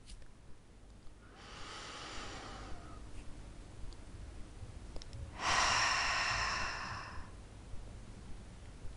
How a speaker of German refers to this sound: Lasst uns wie immer zuerst zusammen atmen.